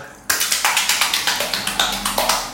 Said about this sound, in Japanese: 今日はお風呂の中からお送りします。ね、拍手っぽい感じで、ちょっとね、お風呂の水面を叩いてみたりしたんですけれども、拍手は小さく細かく。